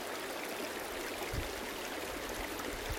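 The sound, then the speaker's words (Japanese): Steady rushing water of a mountain stream tumbling over rugged rocks at Ichigahara, deep in the mountains beyond Nunobiki Falls in Kobe, Japan, a dense, continuous hiss and burble with no voices, fairly loud throughout. “神戸の布引きの滝のさらにですね山の奥の方にある市ヶ原というところで、えー、収録をしております、えー、山の奥の方ねここの岩がゴツゴツとあるところに川が流れているとそんな感じで想像していただきまして、えー、この配信を聞いていただけたらと思います3秒だけ川の水の流れる音聞いていただきましょうか”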